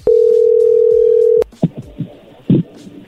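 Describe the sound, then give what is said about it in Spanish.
A loud, steady single-pitch telephone dial tone hums for about a second and a half after the call drops, then cuts off, followed by brief muffled voice fragments. “creo que me colgaste o se cortó, no sé”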